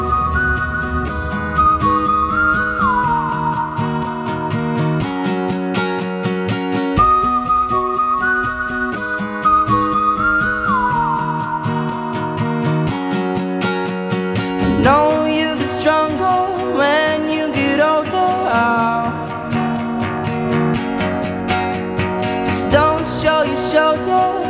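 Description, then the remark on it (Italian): A pop song from the festival plays at an even, fairly loud level, with a bright, whistle-like lead melody gliding between notes over sustained, shifting chords. No voices are heard. “Ma adesso mettiamo la canzone di musica italiana del festival.”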